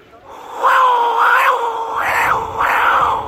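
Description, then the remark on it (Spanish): A loud blown wail, reedy and wavering in pitch like a yowling cat in heat, held for about three seconds with a few swelling pulses and no talking, made by a person blowing, at the ruins of Teotihuacán with the Pyramid of the Moon in the background. “Parece un gato, tipo, un gato en celo.”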